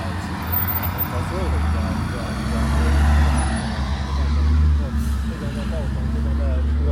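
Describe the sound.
Continuous city traffic in Beijing at 14:22, with the deep, steady rumble of heavy trucks and engines, loud and unbroken for the whole stretch, with indistinct voices mixed faintly into the noise.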